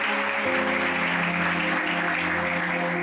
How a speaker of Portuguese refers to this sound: Um aplauso a Jesus.